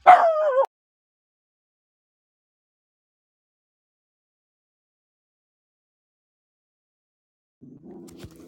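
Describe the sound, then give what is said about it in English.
A dog lets out one loud, sharp, high-pitched bark right at the start after a cat knocked something down in the bathroom, followed by a long silence and a faint low rumble near the end. “Um, something just like fell in here, and the dog kind of went nuts.”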